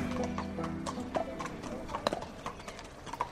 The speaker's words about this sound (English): We're at Arthur Moore's stables. It's a snowy morning in February. Horses are coming in from the fields, the warm breath from their nostrils visible in the cold air.